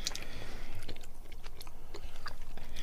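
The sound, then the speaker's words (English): Moist chewing of a soft, sticky chocolate-covered jelly sweet, with repeated small squelches and clicks of the mouth in an irregular rhythm, no talking. “Chew, chew, chew. I'm trying to get rid of the chocolate taste so I can get to the centre.”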